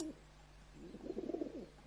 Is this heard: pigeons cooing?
yes